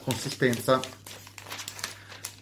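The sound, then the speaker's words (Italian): A short voiced murmur, then the thin, tissue-like, slightly glossy paper of a monthly magazine crinkling in soft, irregular crackles that keep going to the end, light and papery rather than loud. “Mm, carta velina, carta velina, ecco carta velina, un po', un po patinata.”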